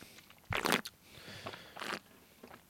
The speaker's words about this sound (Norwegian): Du slurper.